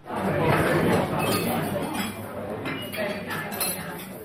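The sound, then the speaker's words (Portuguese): A busy restaurant at lunchtime in the historic centre of Ponta Delgada, São Miguel, Azores, with cutlery and dishes clinking steadily over a low murmur of diners' chatter, mostly tourists, the clatter continuous throughout. “Nos restaurantes são mais os turistas do que os locais.”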